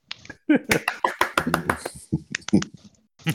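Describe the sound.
A brief burst of applause from a small group, loud, irregular claps overlapping for about two seconds, with some voices mixed in before it thins out.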